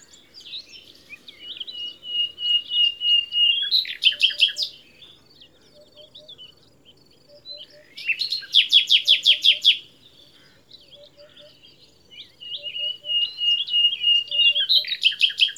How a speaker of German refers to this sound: dieses Schlagen der Nachtigall, dieses Duf, Duf, Duf, Duf, Duf, das ist einfach ganz, ganz charakteristisch. Und das hört man auch sehr, sehr weit und das ist wirklich extrem präsent.